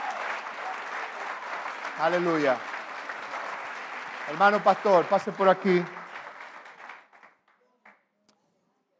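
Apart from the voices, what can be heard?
audience applause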